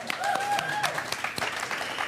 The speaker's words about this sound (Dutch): Heel goed, mag een applaus voor de boys van …. Dank jullie wel.